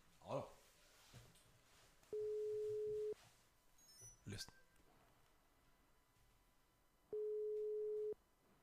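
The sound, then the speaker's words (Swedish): Telephone ringback tone on an outgoing call to Kappa: two loud, steady one-second beeps separated by a long pause. A few short clicks and rustles sit between them, with no talking. “Och nu får han nog vara beredd när vi, när vi ringer Kappa.”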